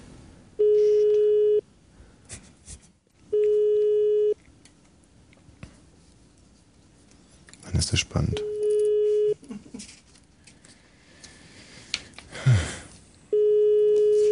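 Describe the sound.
A phone line plays repeated steady beeping tones as a number is dialed for a live prank phone call, four evenly spaced pulses of about a second each, with brief bursts of clatter and people talking quietly in between.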